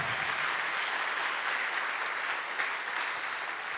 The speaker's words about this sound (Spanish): Dele fuerte ese aplauso al Señor. Fuerte ese aplauso.